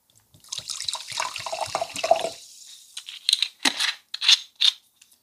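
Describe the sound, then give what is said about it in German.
Mineral water lower in calcium pours steadily into a glass during a water tasting, a bright splashing stream for a couple of seconds, followed by a few short clinks and taps as the glass and bottle are set down. “dann können wir auch gleich mit dem nächsten Wasser dann anfangen und das hat weniger Kalzium okay.”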